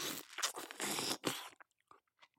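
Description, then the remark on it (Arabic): A loud, crisp bite followed by about a second and a half of dense crunching chews, then a few softer, scattered crunches trailing off into quiet. “بس رح اكل بعد كاتشي واسمعوني”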